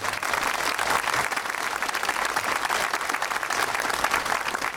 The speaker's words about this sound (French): Déjà, bravo à eux, à eux, faut les applaudir.